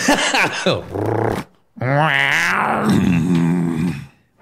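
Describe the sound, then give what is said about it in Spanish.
A person imitates a purring growl with their voice, a short rough rumble followed by a longer, rising and falling growl, loud. “Mm, ronroneando como.”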